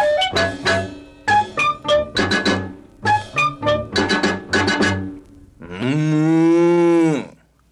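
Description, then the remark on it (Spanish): A person speaks for several seconds, then a single loud, drawn-out cow moo rings out, steady and full before tapering off at the end. “La vaca tuvo maíz para ella y su ternerito.”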